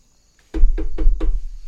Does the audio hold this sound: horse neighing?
no